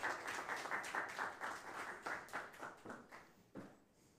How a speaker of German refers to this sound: Und ihr anderen, ihr dürft gerne auch einen Applaus denen geben, dass die sich trauen. Sehr cool.